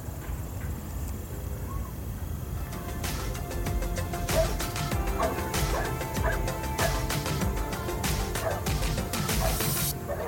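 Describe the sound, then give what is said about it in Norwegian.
A loose dog barks in a farmyard in short repeated bursts, mixed with sharp clattering knocks and crashing noise over a loud, rumbling background, with no one speaking. “Eh, vi fikk plutselig en løshund oppe i gården vår.”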